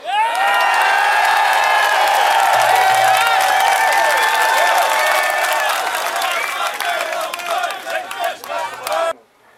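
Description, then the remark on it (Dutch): A large protest crowd gathered outside the door of Waku Waku in the Netherlands cheers and shouts loudly and continuously, a dense roar of many voices with whoops and some clapping, fading out abruptly at the end. “en na al het gedreig zeggen deze ondernemers, weet je wat, we starten een kort geding en we gaan met al deze mensen, want het wordt vanavond nog veel en veel drukker, gaan we de druk opvoeren en laten zien dat Nederland er helemaal klaar mee is.”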